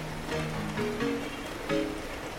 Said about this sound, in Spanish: Aún llueve. De hecho, ha estado toda la noche lloviendo, haciendo un vendaval importante y todo ese tipo de cosas, como si hubiera un pequeño mini tifón.